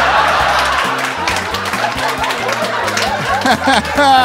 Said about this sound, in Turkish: Hani vuhu sesleri ne bu kibar kibar alkışlamalar filan ya. Golf turnuvasına mı geldik? Tenis maçı mı seyrediyorsunuz? Allah aşkına biraz sevginizi gösterir misiniz?